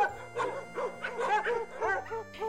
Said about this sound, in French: Votre arrivée semble tout d'abord passer totalement inaperçue, sauf pour les trois chiens frétillants qui se ruent vers vous, toutes truffes dehors.